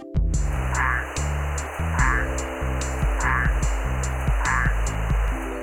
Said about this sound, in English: Male tiger striped tree frogs call for mates from trees or shrubs near the water.